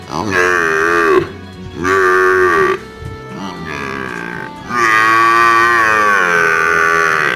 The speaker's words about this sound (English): Do you sound more like a wet cat? Or a wounded water buffalo in heat?